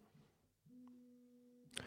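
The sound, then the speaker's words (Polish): A phone gives off a single steady electronic tone, a clean sustained beep lasting about a second, fairly quiet, followed by a brief click or rustle. “to mój telefon, przepraszam najmocniej”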